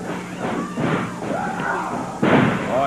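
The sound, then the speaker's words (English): A wrestler is body slammed down onto the ring mat by his opponent with a sudden, heavy thud near the end, rising over a steady wash of crowd noise and faint voices. “he banged him. Oh, he put McGee down.”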